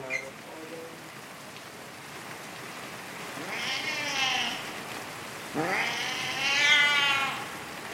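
A cat yowls loudly outdoors in a residential area in Basel in two long, wavering cries, each rising and falling in pitch, echoing off an ivy-covered house wall, against a steady hiss of pouring rain in the background.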